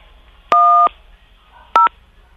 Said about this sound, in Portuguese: Então, por favor, tecle o 10 aí no seu telefone. 10? É, 1 um e o 0.